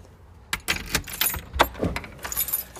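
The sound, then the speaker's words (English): A bunch of keys to a neighbour's house jangles in a string of bright metallic clinks and rattles, irregular and lively, with no one speaking. “I've got the keys to my neighbour's house.”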